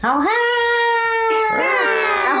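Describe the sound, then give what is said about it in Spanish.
A person vocally imitates cats caterwauling at night: a loud, drawn-out, nasal yowl that rises and holds, breaks briefly, then wails again, continuous for a couple of seconds. “Cada, noche, los gatos empiezan a cantar tal que.”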